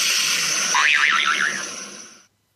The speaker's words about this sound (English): Boing